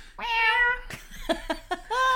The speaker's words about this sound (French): tu vois un chat qui passe